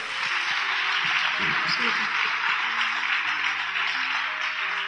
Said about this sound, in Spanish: Dale ese fuerte aplauso a nuestro Dios.